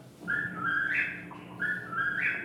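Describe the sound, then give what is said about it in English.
A whippoorwill calls twice in quick succession, each a clear, whistled three-note phrase that rises sharply at the end, ringing out alone over a quiet background. “The whippoorwill, for instance, has a well-known tree note phrase, or seems to have.”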